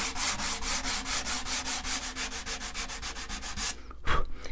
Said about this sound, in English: I'm listening to the sound of the sandpaper, which can change a little bit as I remove the wood. Kind of gives me an indicator of when to stop.